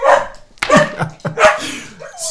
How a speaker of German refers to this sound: das Klingeln anscheinend, hat sie mit Semmel äh, so einen Deal mit ihr, dass Semmel sicherheitshalber bellt,